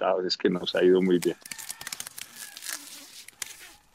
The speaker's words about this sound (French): Pendant qu'il parle, il arrache les feuilles vert clair des tiges de ses arbustes de coca qu'il a récemment plantés.